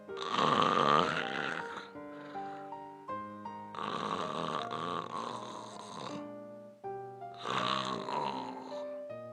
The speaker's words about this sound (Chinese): 小胖猪和大象已经进入了梦乡。小胖猪照样。打着雷声般的鼾